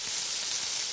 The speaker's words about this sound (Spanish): El sonido de una hamburguesa en la sartén de una casa que ha terminado de pagar su hipoteca suena así.